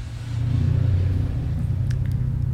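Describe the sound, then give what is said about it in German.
Deep, throbbing engines of a motorcycle gang rev and rumble, a loud, steady low growl that swells early and holds with slight fluctuations, no voices present. “Ja, sorry, ich gerade ein bisschen Motorradgang. Mit den Motorrädern.”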